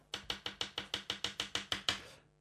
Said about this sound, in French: Donc après, euh, après donc ce dénoyautage, il s'agit d'émincer euh, les poivrons. Alors faites, attention de ne pas vous couper les doigts hein, parce que moi je fais ça très vite, mais vous n'êtes pas obligé d'aller au même rythme que moi.